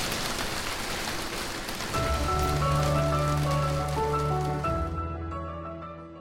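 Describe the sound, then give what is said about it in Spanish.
Heavy rain pours down outside in a dense, loud, steady hiss. After a couple of seconds, sustained musical tones come in beneath it before the downpour fades near the end. “Afuera llovía cántaros.”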